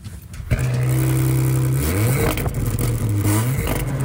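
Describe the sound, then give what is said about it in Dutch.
A hybrid car engine starts abruptly after a brief quiet moment, then hums steadily at a low pitch before revving up and easing back, loud throughout with no talking. “Start hem even, joh. Ik slinger hem aan voor je.”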